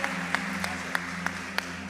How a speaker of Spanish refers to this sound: Peruana, qué hermosa. Démosle un aplauso a ella, qué bendición.